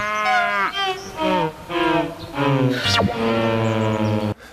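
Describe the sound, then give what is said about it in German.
Several long, drawn-out moos from cows standing on a pasture follow one another closely. Each is loud, a rich low bellow with rising and falling pitch, with no talking. “Beim nächsten Mal also gut hingucken, wenn auch Kühe auf der Weide stehen.”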